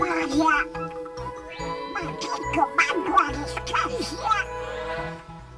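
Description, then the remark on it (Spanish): A voice imitates Donald Duck's raspy, quacking speech in a run of squawky, garbled bursts, fairly loud, over a steady musical tone with light chiming. “Bueno, y, y, el Pato Donald, que también nos lo han imitado aquí.”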